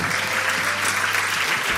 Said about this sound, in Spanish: Un aplauso para Maya Montero.